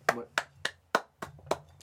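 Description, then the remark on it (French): A single person claps their hands six times in a quick, steady rhythm, each clap sharp and crisp over a faint low hum. “on peut applaudir.”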